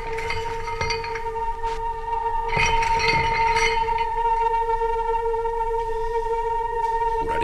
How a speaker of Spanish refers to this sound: Ha debido usted de comprenderlo desde que oyó el arrastrar de mis cadenas.